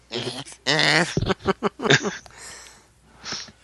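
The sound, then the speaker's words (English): A person vocally imitates an upset chihuahua, making a strained, wavering growl broken by short snorting, huffing bursts, fairly loud, then fading into a brief breathy tail. “He's always like making this weird growling face when he's serious. he looks like a little chihuahua that's upset.”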